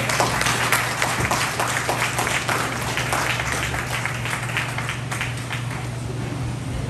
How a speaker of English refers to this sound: Come on, keep clapping